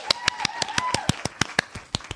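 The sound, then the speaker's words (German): Hands clap in a quick, steady rhythm, applauding the winner of a game: roughly a dozen crisp claps in just over two seconds, at moderate volume with a faint voice-like hum beneath. “Okay, klatsch”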